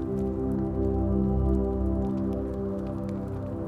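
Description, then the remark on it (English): A campfire with orange and blue flames crackles steadily, with soft, scattered snaps over a warm low rumble of burning, even in loudness, with no voices. “An orchestra of soft snaps. The orange and blue flames lick the air.”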